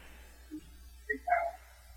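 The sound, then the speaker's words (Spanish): A dog that has escaped gives a few short, high yips and barks, one quick sound followed by a slightly longer burst, against a quiet background with no talking. “Ay, perdón, es que aquí se escapó mi perro, pero ahorita voy por él.”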